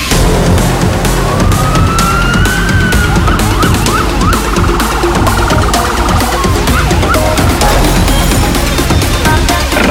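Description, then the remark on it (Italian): A loud, energetic radio theme jingle with a driving, steady beat and wailing siren-like tones sweeping up and down over it, with no voices. It is the opening theme of the Radio Company programme "Un sacco belli". “Eccola qui, l'avete sentita anche oggi, questa è la nostra sigla, siamo partiti, è cominciato un sacco belli il programma senza regole”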